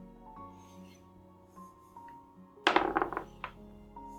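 A die is tossed onto a table: after a quiet stretch with a low hum, a quick flurry of sharp clattering knocks as it bounces and tumbles, then a final small tap.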